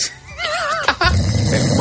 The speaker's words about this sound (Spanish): Y hoy vamos a hablar de este sonido. Caramba. El hipopótamo.